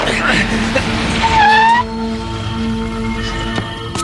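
A car with two people inside rolls in with a rumbling engine, then its brakes give a short, high, rising squeal before it settles into a steady, low idling hum.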